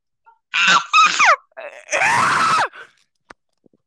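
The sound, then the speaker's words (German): Several loud, strained screams from a voice put on as a silly voice, delivered in short bursts with sliding pitch, the longest one harsh and raspy, with brief pauses between them. “Ab jetzt ja alles nur noch im Schreien.”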